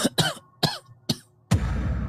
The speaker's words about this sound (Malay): saya terbatuk. Saya terbatuk sebabkan ialah kita kepenatan, tiba-tiba kita terbatuk.